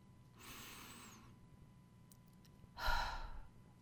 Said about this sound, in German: Stell dir vor, dass eine unsichtbare Schnur deinen Kopf am Scheitel nach oben zieht und roll die Schultern einmal nach hinten ab und atme dreimal mit mir tief ein und aus.